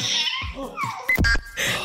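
A baby lets out a string of high-pitched, squeaky squeals and gliding shrieks, fairly loud, with giggly bursts and no talking.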